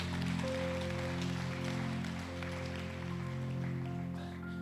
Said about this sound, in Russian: Поэтому, друзья мои, да, дайте огромные аплодисменты Господу.